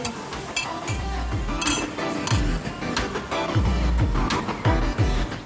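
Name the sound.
glasses clinking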